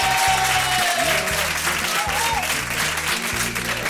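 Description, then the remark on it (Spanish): An audience at the Jarro Café applauds steadily for about four seconds, a dense wash of clapping over a low, rhythmic music bed, with a thin whistle-like tone sliding through partway. “Un aplauso, claro.”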